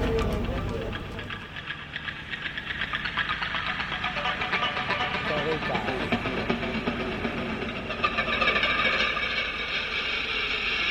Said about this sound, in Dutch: lopen midden in de woestijn op één snelweg. het is levensgevaarlijk hier. Vrachtwagens denderen hier met 120 kilo voorbij. Allemaal zand in mijn smoel.